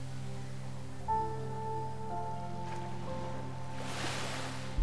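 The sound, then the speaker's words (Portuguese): Soft ocean waves wash in and recede beneath a steady, sustained musical drone, with one fuller surge of surf swelling near the end; calm and unhurried, no voices. “Você escuta o barulho das ondas que batem suavemente indo e voltando.”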